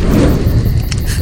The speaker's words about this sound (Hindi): बुखारी जिसमें लकड़ियाँ और केरोसिन डाल के जलाते हैं ताकि रूम गर्म रहे उसकी आग कुछ कम होने लगी तो मैं पास पड़ी लकड़ियों से बुखारी को और तेज़ करने की कोशिश करने लगी पर अचानक आग कुछ ज़्यादा ही तेज़ भड़क उठी